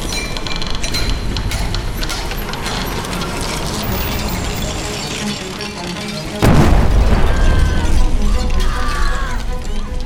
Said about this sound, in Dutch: Op 17 april 1879 weer klinkt een explosie de kolenmijn van Agrap in Framerie. De ontploffing is in de hele regio te horen.